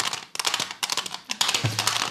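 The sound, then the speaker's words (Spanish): A small plastic box with two screws inside rattles in quick rhythmic bursts, a crisp clatter mimicking a horse's hooves clip-clopping, with no voices. “Para hacer un caballo contamos con una cajita de plástico con dos tornillos dentro.”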